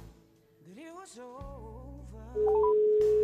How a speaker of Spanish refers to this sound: Voy a hacer una llamada para preguntarle a una amiga cómo lo ha estado llevando estos días. Y está marcando nuestro teléfono.